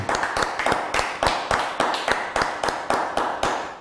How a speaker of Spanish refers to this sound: Vamos a darle un fuerte aplauso al Eterno.